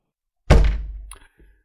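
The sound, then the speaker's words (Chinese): A single heavy thump of a hand slamming down on the office desk of Sun Yangdong, the deputy finance director: a loud, low, booming impact that rings out briefly and fades, followed by a faint soft knock. “那人说完，手重重拍在孙阳东的办公桌上。”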